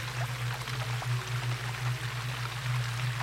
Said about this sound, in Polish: Słyszę wodę. Jestem nią przepełniona.